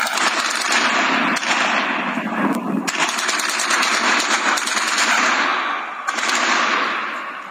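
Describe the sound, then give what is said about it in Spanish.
Sustained bursts of automatic gunfire crack loudly and repeatedly, overlapping shots from multiple weapons with brief gaps, a chaotic firefight between organized crime cells fighting over territory in Tamaulipas, Mexico, taken from videos recorded during the clash, without talking. “Esto que usted escucha es el sonido de diversos videos que fueron tomados en el momento de esta refriega, de este intercambio de plomo entre células del crimen organizado que se disputan plazas allá en Tamaulipas.”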